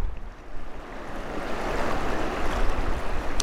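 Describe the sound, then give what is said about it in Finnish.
A steady, broad rush of the free-flowing Kiiminkijoki river in northern Finland, a Natura-protected river flowing into the Bothnian Bay, continuous and swelling slightly toward the end with no voices present. “Ja tämä Kiiminkijoki on ainutlaatuinen joki Pohjois-Suomessa, että se on Natura-ohjelmalla suojeltu vapaana virtaava joki ja virtaa täällä tähän perämereen.”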